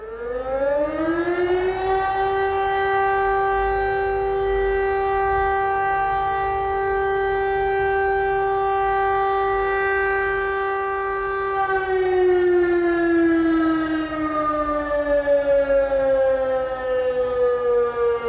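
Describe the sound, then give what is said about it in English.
A loud outdoor warning siren wails steadily, rising in pitch at the start, holding a long sustained tone, then slowly falling away near the end, with no voices. “You know, you hear that, that wailing, like tornado siren sound.”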